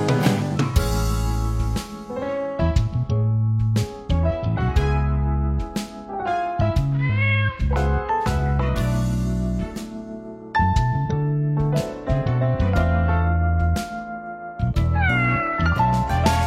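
Cat meows, several high, sliding cries, sound over a loud, steady musical backing with heavy bass, rising and falling in pitch at intervals throughout.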